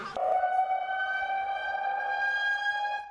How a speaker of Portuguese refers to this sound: E nessas áreas, o solo costuma ficar bastante encharcado, o que facilita os deslizamentos de terra e desabamentos de imóveis. Em alguns bairros, a sirene voltou a dar o alerta.